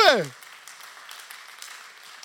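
An audience applauds Jesus in a steady, even patter of many hands, moderately soft, following a brief falling vocal sound at the very start.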